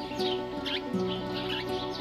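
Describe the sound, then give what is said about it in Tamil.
Birds chirp repeatedly in quick, high bursts, several calls overlapping as a large flock flies off overhead, set against a steady low tonal hum in the background. “டக்குன்னு ஒரு செகண்ட் நீங்கள் மேலே பார்க்குறீங்க நிறைய பறவைகள் பறந்து போகுது நிறைய பறவைகள் தன்னோட குடும்பத்தோடு பறந்து போகுது தன்னோட அப்பா அம்மாவோட பறந்து போகுது”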